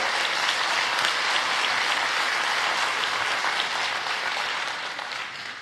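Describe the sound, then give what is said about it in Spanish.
A large church audience claps for the church's volunteers in a steady, dense, loud wash of applause that holds even for several seconds, then begins to fade slightly toward the end. “Denles un fuerte aplauso, por favor.”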